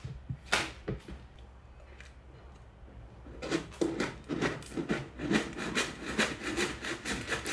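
A cat scratches a scratching board: a few rasping strokes, a pause, then a quick steady run of loud, dry scraping swipes on rough wood fibre. No voices.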